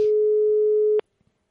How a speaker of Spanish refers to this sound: Vamos a ver si el oyente, esta vez, uno de los que participa habitualmente, coge el teléfono. Ahí está el tono, ahí está el tono de llamada